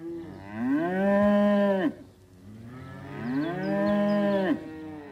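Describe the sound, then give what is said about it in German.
Two long, loud moos from a cow on an organic dairy farm in Eben near Kulmbach, Franconia, as cows trot from a large, rather dried-out pasture back into the barn around 9 a.m.; each moo rises and holds steady before breaking off, separated by a short pause with faint background noise. “Auf dem Biomilchbetrieb der Familie Choppe in Eben bei Kulmbach trotten Kühe von einer großen, aber recht ausgetrockneten Weide morgens gegen 9 Uhr zurück in den Stall.”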